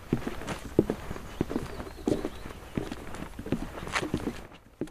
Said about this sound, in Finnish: kesken kiireisen äänitysajan Liminganlahdella, jossa kävelemme ilta-auringossa pitkospuita lintutornille katselemaan ja erityisesti tietenkin kuuntelemaan, olisiko siellä kuoveja paikalla.